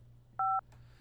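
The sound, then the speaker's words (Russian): A single short two-tone beep from a phone keypad button press during a phone call, clear and steady, over a low electrical hum, followed by a faint click. No one speaks. “вы, наверное, щекой нажимаете кнопки, осторожно, осторожно, не давите на телефон.”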